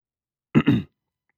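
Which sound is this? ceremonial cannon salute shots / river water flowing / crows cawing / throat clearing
throat clearing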